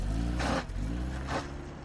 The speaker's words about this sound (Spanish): En el coche, nos alejamos de la capilla en busca de algo de comer.